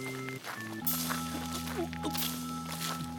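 A group walks silently through a dark forest at night along narrow paths at a steady walking pace, soft crunching footsteps over a sustained low, humming musical drone.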